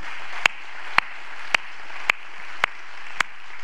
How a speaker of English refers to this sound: So, can we just give the Lord a hand for what He's doing among us?